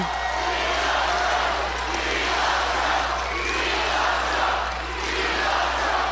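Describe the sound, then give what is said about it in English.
A large crowd roars and chants continuously at a rally for the former president in Michigan, a dense, loud wall of voices swelling and dipping slightly with no pauses. “but if it was measured just by admiration and crowd intensity,”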